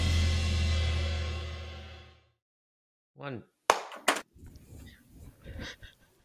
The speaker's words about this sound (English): Oh, that clap. It's like a Pavlov's reaction.